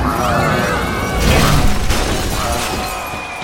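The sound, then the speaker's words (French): A large bay window pane shatters as a giant cyborg duck crashes through it, with a sustained, bright crash, followed by a spray of tinkling shards and debris lasting a few seconds. “Le canard est passé à travers la baie vitrée Il tombe dans le vide”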